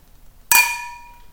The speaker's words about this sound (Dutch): Dat wou ik net zeggen, we moeten heel voorzichtig gaan klinken.